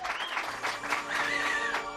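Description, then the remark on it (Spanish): A studio audience, including uniformed members of the fifth communication course of the Ejército del Aire (Air Force), claps steadily for about two seconds, a modest, even patter of many hands with faint whistles or voices mixed in. “Uy, qué poco aplauden, ¿no? Les falta energía.”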